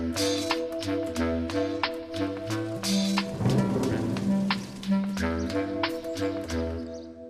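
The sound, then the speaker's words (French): A TV weather forecast theme jingle: sustained synth chords and a bouncing bass line over crackling rain-like patter, with a brief rumbling swell midway, played steadily without any voices. “Je pense que vous pouvez deviner à peu près le programme. Je dirais que c'est la météo.”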